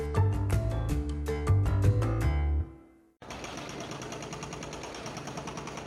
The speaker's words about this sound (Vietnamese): Đây là tiếng của một ngôi nhà đang bị phá hủy ở bang Uttar Pradesh, Ấn Độ. Theo chính quyền tiểu bang, ngôi nhà này được xây dựng bất hợp pháp. Nhưng quan trọng hơn, nó thuộc về những công dân Hồi giáo đã tham gia vào các cuộc biểu tình gần đây